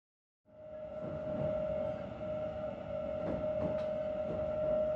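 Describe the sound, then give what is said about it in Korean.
A subway train, riding toward Park Slope, rumbles along steadily, with a loud, continuous low roar, a sustained whining tone, and occasional rhythmic clacks of wheels over track joints; no one speaks. “지하철을 타고 파크 슬로프에 있는 책만 가득한 작은 아파트로 돌아가는 긴 시간 동안 베로니카는 무릎에 손을 얹고 가만히 앉아 있었다.”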